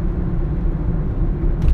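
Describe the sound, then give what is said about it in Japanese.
Steady low rumble of a car interior while driving, recorded on a device attached to the car's clip-on mount, a continuous engine and road drone with no voices, rising slightly near the end. “車のあのガチャっていうやつにつけて”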